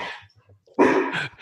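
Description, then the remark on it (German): Dogs bark and whine: a high, thin whimper at the start, then a loud, harsh bark burst followed by another shorter one, with no talking. “Man hört Fiepen und Bellen gleichzeitig, das kann nicht nur einer sein.”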